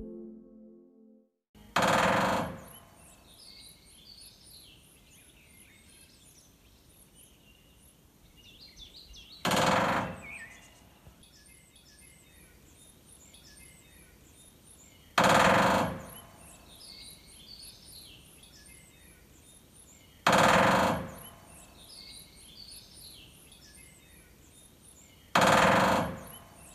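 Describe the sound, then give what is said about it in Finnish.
A woodpecker drums on wood in five loud, rapid bursts spaced several seconds apart, each a brief machine-like roll, with faint birdsong chirping in the background between them. “Tikat rumpaleina”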